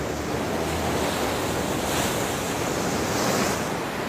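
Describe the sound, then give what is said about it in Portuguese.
Ocean waves crash and break against rocks in a steady, loud roar of surf, with a continuous wash of white noise and some wind, no voices present. “Olha, como nas ondas quebrando aí na pedra”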